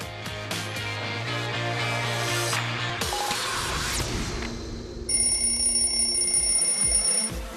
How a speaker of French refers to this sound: Le deuxième réveil de la journée.